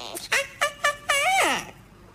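Parakeet calls: three short, bright chirps in quick succession, then a longer warbling squawk that slides downward, loud with no other sounds around them.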